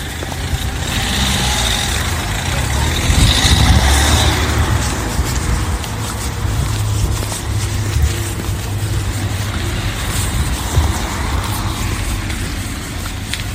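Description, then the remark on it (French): A car engine rumbles steadily for the whole stretch, a low continuous drone with a brief swell in loudness early on, amid general outdoor traffic noise. “Attends, il y a une voiture.”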